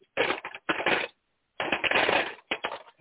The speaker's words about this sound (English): And this may also bring me to mention that sometimes we have people that say they want to generously donate, and you can hear their donations drop into the tithe box. So graciously being donated.